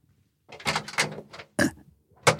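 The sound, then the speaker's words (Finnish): A door opens with a run of scraping, rattling bursts, then a sharp clunk and a final shove, moderately loud, with no one speaking. “Ovesta ulos.”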